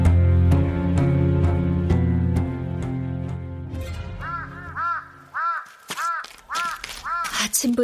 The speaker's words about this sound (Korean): 더웬 까마귀가 저렇게 운담.